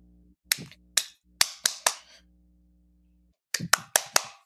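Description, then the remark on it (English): Sharp hand claps in two bursts, four quick claps then a pause and four more, crisp and loud over a low steady hum, imitating the impact of a bag hitting someone square on the kneecap. “I was trying to mimic the impact sound, but one clap wasn't doing it.”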